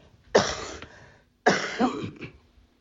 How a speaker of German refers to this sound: entschuldigen, ich muss mal husten